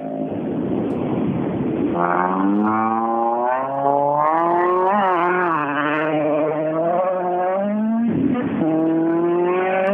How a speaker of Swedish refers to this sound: Nu ska vi lyssna på en Golf 3. Hur den låter i starten.